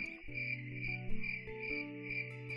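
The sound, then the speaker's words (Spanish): Crickets chirp in a steady, continuous high-pitched trill, fairly loud, with a faint low tonal hum underneath and no one talking. “puedes poner sonidos de grillos en esta parte del audio.”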